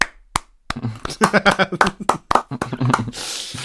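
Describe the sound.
A handful of sharp hand claps ring out irregularly, mixed with people talking and laughing over them, ending in a brief hiss of noise.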